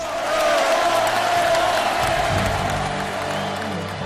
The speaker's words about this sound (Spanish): Ovación por el trabajo de estas semanas pasadas y porque ahora más que nunca nos necesitan a los lectores y consumidores de sus revistas.